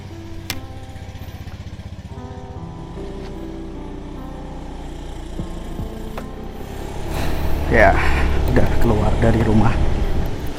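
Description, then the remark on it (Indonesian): A motorcycle engine, recorded on the motorcycle while riding, drones steadily throughout, its low hum swelling louder toward the end, with a person's voice talking over it in the later seconds. “semoga aja rekamannya bagus ya karena direkam di motor”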